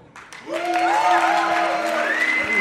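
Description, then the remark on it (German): A live audience breaks into sustained applause after a brief quiet start, with sustained voices rising and calling out over the steady clapping noise. “Und jetzt euer Applaus”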